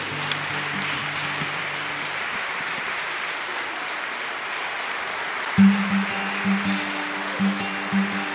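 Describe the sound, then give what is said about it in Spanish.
Steady crowd applause for the Virgin Mary as she is arriving fills the whole stretch, a dense hiss of clapping, with low sustained musical tones underneath that fade out and then return with soft rhythmic beats. “Por eso un aplauso para ella que está llegando ahí.”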